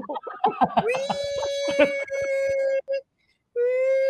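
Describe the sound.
A voice imitates a duck as a sound effect, starting with quick choppy sounds, then a long nasal, buzzy quack held steady, a brief pause, and another drawn-out quack, fairly loud.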